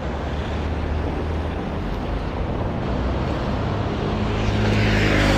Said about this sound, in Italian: c'è un gran traffico qua a Bologna